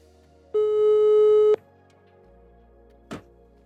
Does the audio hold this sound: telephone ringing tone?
yes